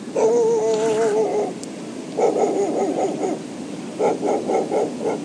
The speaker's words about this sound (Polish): Pies na plaży nie zgadza się chyba z tym, co mówię, a może właśnie się zgadza i to jest może właśnie szczek aprobaty, nie wiem.